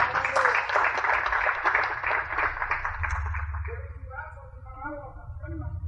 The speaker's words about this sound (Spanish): Denle un aplauso Señor, por favor.